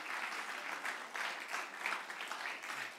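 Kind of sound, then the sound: crowd, audience applauding loudly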